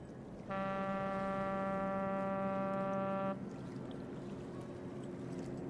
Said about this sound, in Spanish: están escuchando el famoso registro del puerto de Vancouver